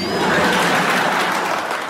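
A steady burst of applause from many hands, a dense, loud crackle of clapping that holds even for about two seconds, with no voices over it.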